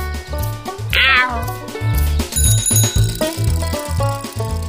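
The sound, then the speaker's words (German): A single short cat meow rises and wavers near the start, laid over loud, upbeat music with a steady, thumping bass rhythm that continues to the end. “Miau. Entbetont. Miau.”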